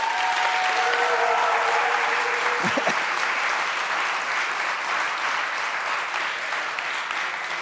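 Steady, dense audience applause for a contestant's painting in a painting contest fills the whole stretch, many hands clapping at once in a loud even roar with a few brief whistles or cheers early on.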